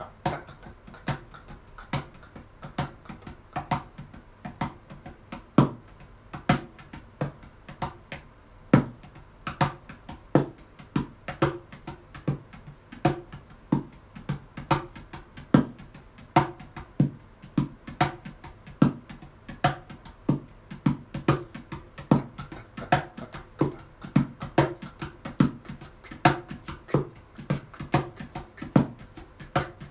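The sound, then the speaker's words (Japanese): A mini cajon plays a steady 16-beat shuffle for the whole stretch, crisp slaps in a lilting swung pattern with occasional deeper bass hits, no voices. “ミニカホンを叩いてみた⑩〜16ビートシャッフル”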